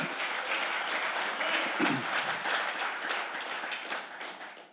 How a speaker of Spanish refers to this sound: Dale ese aplauso al Señor.